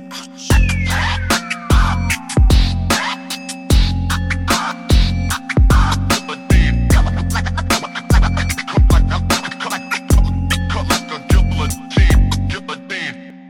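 A loud hip-hop beat pounds along in a steady rhythm, with heavy booming bass notes, sharp percussive hits and scratchy textures, and no vocals coming through.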